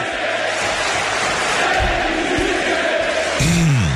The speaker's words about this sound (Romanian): Și uh, o să începem cu niște ovații Am găsit pe YouTube o chestie Top 20 Greatest Ovations of All Time